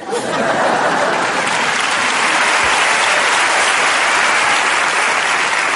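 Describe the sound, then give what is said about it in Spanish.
Loud, sustained audience applause welcoming Ernesto Sevilla onto the stage, a dense wash of many hands clapping at once that holds steady throughout without any speech over it. “Y ahora os pido un fuerte aplauso para recibir al espectacular Ernesto Sevilla.”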